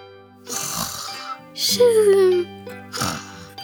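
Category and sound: vocal imitation, voice imitating snoring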